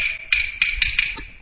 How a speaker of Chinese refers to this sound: 别睡了，兄弟，有人叫门，开开门看看。 那有人叫门，你开开看看不都算了？